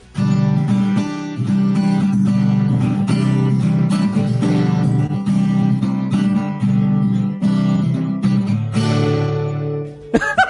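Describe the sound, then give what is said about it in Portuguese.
An acoustic guitar strums a looping 1990s-style chord progression in a steady rhythm, fairly loud, for about ten seconds before stopping abruptly. No one talks over it. “Todas as músicas estão assim, ó. Eu vou ter que mostrar no violão.”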